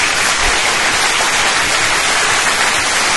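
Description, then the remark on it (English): A loud, steady round of applause from a crowd for the Sonic 1 Mega Drive and Genesis soundtrack winning a vote, many hands clapping in a dense, continuous patter that holds throughout without pauses or voices. “Round of applause, round of applause, everyone.”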